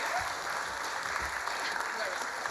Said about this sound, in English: And another round of applause.